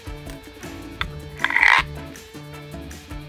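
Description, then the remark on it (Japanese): Frog croaking in a steady, repeating rhythm of short throaty calls, with one louder, raspier croak partway through; clear, with no talking. “じゃあカエルの音をどうぞ”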